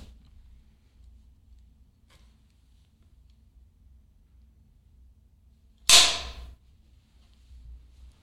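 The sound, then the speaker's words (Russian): A single sharp hand clap for sync rings out once, loud and crisp, after several seconds of near-silence with a faint low hum, then quickly fades away. “Ты хлопнешь? Хорошо.”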